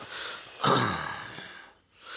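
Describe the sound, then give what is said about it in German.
A voice imitates the relaxed sigh of someone finally settling into a relaxing position: one long, breathy exhale that starts strong and slowly fades, with a faint throaty rumble underneath. “Mit so einem kleinen Ruppeln noch hinten in der Kehle.”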